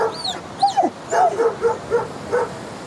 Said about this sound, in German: Die Hunde vermehrten das allgemeine Chaos durch ihr Geheul, Gekläff und Gebalge.